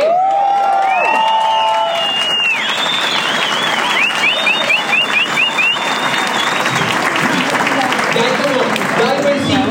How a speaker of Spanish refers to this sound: hay como unos cinco nuevos que aplauden. Porque hay unos nuevos que ni por el berraco de madre, no.